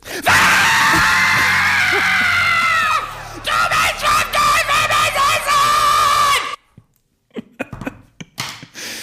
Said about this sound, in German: Ich will jetzt kein Geschrei hören. Ich erkläre es euch warum.